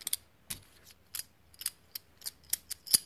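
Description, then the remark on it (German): Collectible Pokémon coins clink together in a quick, irregular series of about ten light metallic clicks, fairly quiet, with no one speaking. “Wenn ihr die letzte Folge meine Pokémon-Münzen noch nicht an euch noch nicht angehört habt, ja, die habe ich auch immer noch gerade bei mir.”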